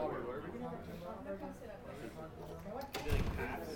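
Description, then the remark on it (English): Voices chatter, then near the end a door is pulled shut with a single solid, short thud, after which the talk carries on. “Would you pull the door shut, please?”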